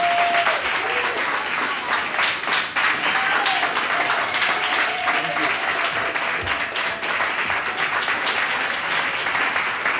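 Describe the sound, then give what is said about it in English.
Loud, sustained audience applause welcoming two Grammy-nominated and Grammy-winning guests: a dense crackle of many hands clapping at once with occasional cheers or whoops rising above it. “Give it up.”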